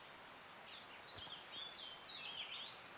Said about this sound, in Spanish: Escuchen. Y aprovechamos haciendo un ejercicio de creatividad para cerrar nuestros ojos, escuchar el canto de esas aves.